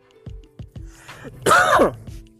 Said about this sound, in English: Excuse me, I apologize for coughing in y'all ear. I'm so sorry.